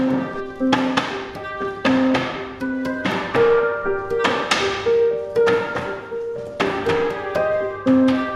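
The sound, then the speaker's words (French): A cooper's large hammer taps a wooden barrique as it is put together, in a steady, fast rhythm, each blow a sharp resonant knock with a ringing tone, repeating dozens of times without any talking. “On a des marteaux qui sont quand même assez gros et on est capable de taper sans regarder où on tape.”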